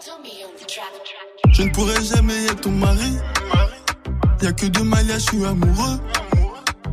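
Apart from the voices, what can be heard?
rap song playing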